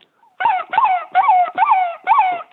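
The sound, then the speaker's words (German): Five short, hoarse fox-like barks come in quick succession, each a brief rising-and-falling yap, fairly loud, made by a human voice imitating a fox. “Wenn, ich, wenn der Fuchs so ganz kurz hintereinander hau, hau, hau bellt, so,”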